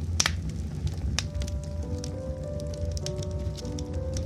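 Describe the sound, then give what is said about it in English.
A fireplace crackles steadily with scattered sharp pops over a low, soft rumble, while quiet sustained tones of sleep-inducing music drift in underneath after the first second. “Now, on to tonight's story The Happy Castaway, set to sleep inducing music and this beautiful fireplace.”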